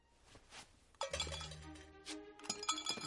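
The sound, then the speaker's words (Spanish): Coins clink and jingle together in a bright, metallic cascade, starting softly and then swelling into a busy run of overlapping chinks with a few sharper accents near the end. No one speaks. “Ah, moneditas, moneditas, moneditas. ¿Cómo me gusta este sonido?”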